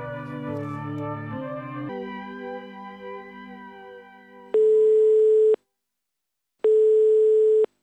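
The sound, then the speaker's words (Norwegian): Music fades out, then a telephone line tone rings twice: two loud, steady one-second beeps separated by a silent pause, as if waiting for a call to be answered. “Uh, hallo? Det er Trondheim som ringer.”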